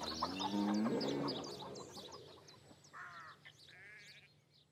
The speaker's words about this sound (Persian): یکی نبود یه مزرعه بود با یه عالم حیوانای مختلف این حیوانا گاهی با هم حرف میزنن گوش بدیم ببینیم چی به هم میگن